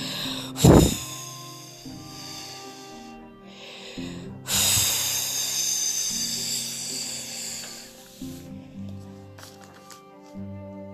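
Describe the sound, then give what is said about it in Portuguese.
A voice imitates the wolf in a story of the little pigs blowing hard at their house: a short, sharp puff, then a long, loud, breathy whoosh lasting several seconds, with soft music playing underneath. “Vendo que os porquinhos não abriam a porta da casa, o lobo começou a soprar, soprar, e a casa continuava inteira no seu lugar.”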